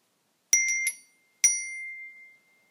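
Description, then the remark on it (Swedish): A bright, metallic ding like a phone message alert: a quick triple chime, a short pause, then one more clear ring that fades out, fairly loud, with no voices. “Eller var det, det lät nästan som en sms-signal från iPhone.”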